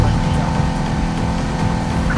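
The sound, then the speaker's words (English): A video game race car engine drones steadily and loudly for the whole stretch, a constant humming roar with a faint voice murmuring underneath. “Shoot, I'm outpacing that last, that last car by a mile.”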